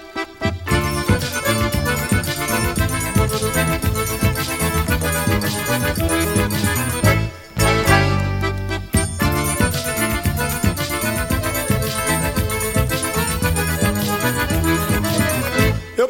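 A lively forró trio number: accordion melody over a steady zabumba beat and bright triangle, playing loud and continuous, with a brief drop around the middle before the groove resumes.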